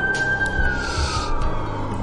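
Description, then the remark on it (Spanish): An ambulance siren wails with a steady, slowly falling tone, moderately loud over a low rumble of traffic, with no one speaking. “Tanto así que lo tuvieron que regresar en ambulancia a la ciudad de México”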